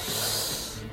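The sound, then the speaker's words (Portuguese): An aluminum drink can being opened during carnival, a steady, bright fizzing hiss that lasts about a second and fades slightly toward the end, with no voices. “Rapaz, isso aqui é o som de uma latinha da escola abrindo em pleno carnaval.”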